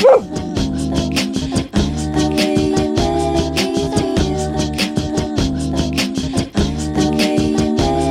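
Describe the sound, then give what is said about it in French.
Small dogs yap in quick, repeated bursts, fairly loud, mixed into a steady layered musical loop made with human beatbox on a loopbox, with a rhythmic beat running underneath throughout; the loop is composed by a woman sitting on her bed with her microphone and her small dogs. “qui aime bien composer tranquille, assise sur son lit avec son micro et ses petits chiens.”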